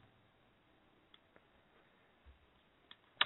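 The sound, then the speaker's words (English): A handful of soft, irregular clicks of keys being tapped on a computer keyboard while someone posts online that a show is live, sparse and quiet at first, with a sharper, louder tap near the end. No one speaks. “I was putting it up on Twitter that the show was live, so you guys got to listen to me typing for a second.”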